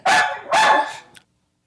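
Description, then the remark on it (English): A dog named Bella gives two loud, sharp barks in quick succession, the second longer and trailing off, followed by a faint click and then silence. “I, I don't know how to translate in human.”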